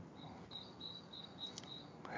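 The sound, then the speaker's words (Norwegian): A Eurasian blackbird sings faintly in the background, a run of thin, high chirping notes repeating over a quiet hiss, with no one speaking. “Men hva, hva fugl er det vi hører her i bakgrunnen? For de ornotologi-interesserte. Det er høyst sannsynlig en svarttrost, men jeg har på meg sånne ørepropper på begge ørene, så jeg hører faktisk ikke disse lydene dere snakker om.”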